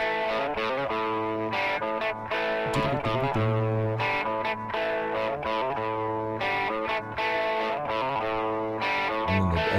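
A clean electric guitar solo panned to the left, playing a steady run of bright, sustained notes at a strong, even level with no voices.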